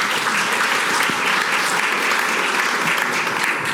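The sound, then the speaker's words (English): A crowd claps steadily and loudly, a dense, continuous patter of many hands that holds at the same level throughout without pause or spoken voices. “Applaud after every round. We, believe me, we have too many rounds. We'll applaud at the end. Hold your applause, please.”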